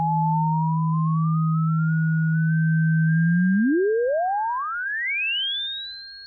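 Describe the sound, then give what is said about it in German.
A synthetic electric-car warning tone of two steady pure pitches that glide upward together in a smooth rising glissando, sounding alone with no voices, clear and fairly loud throughout. “Außerdem muss mindestens eine Frequenz proportional zur Geschwindigkeit ansteigen. Das klingt wie ein Glissando, ein Gleiten von Ton zu Ton um fast eine kleine Terz.”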